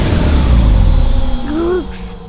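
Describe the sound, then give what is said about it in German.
A heavy, rumbling sci-fi spaceship engine roar winds down as the ship brakes, with whining tones sweeping at the end and a short burst of hiss as it stops. Loud, no talking. “Achtung Sternchen, wir legen los mit dem Bremsen.”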